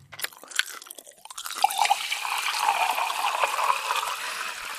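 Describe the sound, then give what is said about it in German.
Crisp crunching of bites and chewing, followed by a steady wet, gurgling wash of sound like food being chewed and swallowed, with no one speaking. “Sobald wir etwas essen oder trinken, beginnt ein großes Zusammenspiel im Körper beißen, kauen, schlucken und im Magen wird die Nahrung dann hin und her geschaukelt, bis sie wirklich sehr, sehr klein ist.”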